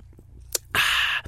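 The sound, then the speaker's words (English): A quick click followed by a loud slurping sip of Coke that lasts about half a second and ends with a small gulp. No one speaks. “I was hoping you'd answer with more than nope, so I'd have time to take a sip.”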